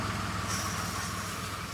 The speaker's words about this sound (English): So the panels get quite dusty during the day. So that sound you hear is a tractor moving up and down the rows of panels and just cleaning them off.